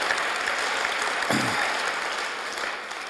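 Steady audience applause, a dense wash of many hands clapping at an even level throughout, with a brief voiced murmur rising out of it midway.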